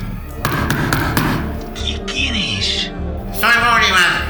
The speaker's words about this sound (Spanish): ¡Acá está la puerta! ¡Golpea, comi!